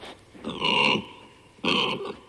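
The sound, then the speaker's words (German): Two loud, rough pig grunts with a squealing edge, the first longer and the second after a short pause, with no voices. “Formen sozialen Lernens zeigen auch Schweine, die eigentlich darauf angewiesen sind, in Gruppen von bis zu 20 Tieren zusammenzuleben.”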